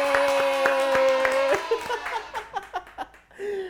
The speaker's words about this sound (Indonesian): Tepuk tangan.